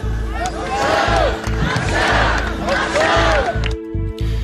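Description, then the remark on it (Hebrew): A large crowd of protesters in Tel Aviv chants loudly in unison, demanding the release of all the hostages, repeating a rhythmic slogan in rising and falling bursts of many voices, with a brief drop-off near the end before the chanting resumes. “לאחר פיצוץ השיחות על הפסקת האש בקטאר, הלחימה נמשכת לצד הדרישה של המונים אמש בתל אביב לשחרר את כל החטופים.”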